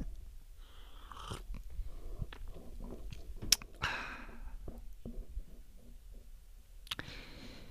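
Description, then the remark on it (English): Sipping mullein leaf tea from a cup: soft mouth clicks and small taps, then a brief airy slurp midway, followed by quiet swallowing noises and another short sip near the end. “First, let me take a sip of my mullein leaf tea here, boosting my immune system.”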